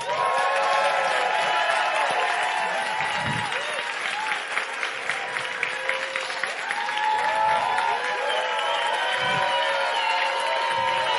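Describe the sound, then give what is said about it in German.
A large audience claps loudly and steadily for several seconds as a guest is introduced, with scattered cheers and whoops rising above the dense wash of applause. “macht bitte jetzt mal einen riesengroßen Applaus für den Mann, der jede Randsendung zu einem echten Happening macht.”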